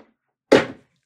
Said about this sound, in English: So I've got my blender here, and I'm going to add all of these ingredients all at once no brainer, right?